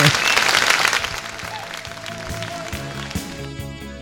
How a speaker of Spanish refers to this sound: La gente aplaude acá en los estudios.